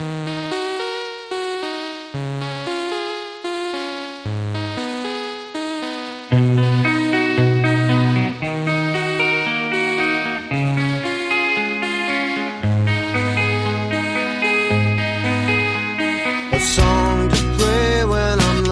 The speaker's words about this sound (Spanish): Y a mí me gustaría despedirlo con, con una canción de sus discos en solitario. Una canción que lleva un título precioso.